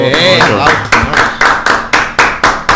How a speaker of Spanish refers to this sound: Un aplauso.